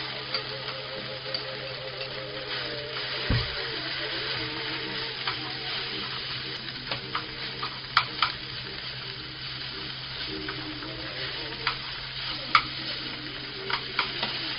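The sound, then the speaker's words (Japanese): Steady sizzling of thin pork slices and salted bitter melon (goya) stir-frying in a pan, with scattered clicks and scrapes of cooking chopsticks spreading the meat; no other seasoning has been added yet. A low hum runs underneath and no one speaks. “まあ、豚こまをこすって菜箸で広げながら炒めていくんですけどまだ今んとこその味付けっちゅう味付けは何もしてませんまあゴーヤにはね塩を振ったんで多少ゴーヤには塩気がついてると思うんですけど”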